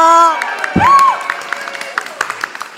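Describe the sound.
A crowd cheers with shouts and whoops, a couple of high voices rising over the noise, then the cheering thins into scattered claps and calls.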